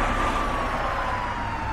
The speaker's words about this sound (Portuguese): eu coloquei a sirene, a gente pode avançar o sinal.